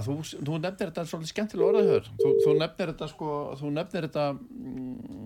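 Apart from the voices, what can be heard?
phone ringing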